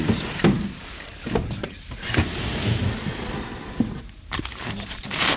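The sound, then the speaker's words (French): Drawers slide open and shut several times in an apartment, with scraping rumbles and sharp knocks at irregular intervals and a faint murmur of voices underneath. “nous ouvre ses tiroirs.”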